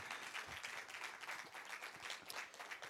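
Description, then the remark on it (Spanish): A church audience applauds loudly for the Lord, a dense, steady wash of many hands clapping together that continues without letup for the full stretch, with no voices rising above it. “Una aplauso fuerte Señor, por favor.”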